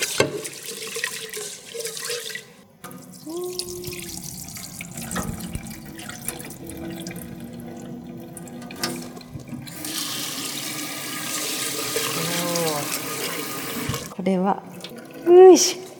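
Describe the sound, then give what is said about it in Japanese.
Running tap water splashes steadily into a container as rice is rinsed, with intermittent clinks and sloshing as the rice grains are swirled, ending with a brief louder splash. “お米入れましたはいじゃあこれちょっとさお水で洗いたいじゃん”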